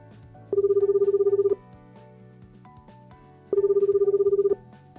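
A phone's outgoing ringback tone, as a call is placed to an actor, sounds twice, each a roughly one-second trilling burst separated by about two seconds of quiet, clear over faint background noise.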